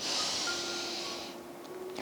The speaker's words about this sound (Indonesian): Coba uh, teman-teman ambil nafas yang dalam,